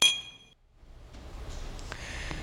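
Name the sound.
glasses clinking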